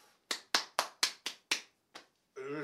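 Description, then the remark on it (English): Seven sharp hand claps from a man clapping for himself ring out, the first six in a quick even rhythm and one more after a short pause, before a voice starts speaking at the end. “Well, I'm clapping for myself, innit?”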